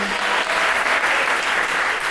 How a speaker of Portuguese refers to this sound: A salva de palmas para isso.